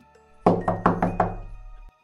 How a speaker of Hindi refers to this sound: तभी दरवाजे पर एक जोरदार दस्तक हुई